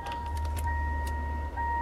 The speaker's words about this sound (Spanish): Gente, gente, ya me gusta el sonido. Ese es el del auto, ¿viste? ¿No te pones el cinturón?